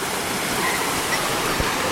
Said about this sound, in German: Das ist echt schön hier, der Wasserfall. Also da kann was. Das ist sicher kein Niagara-Fall, aber Schön.